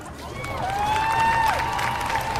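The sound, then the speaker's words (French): A massive crowd at a civil disobedience rally held by a school class cheers and roars steadily throughout, waiting for the students to speak, with a single high, sustained shout or whistle rising above the din and dropping off partway through. “Les élèves font face à une foule massive qui attend avec impatience de savoir ce qu'ils ont à dire.”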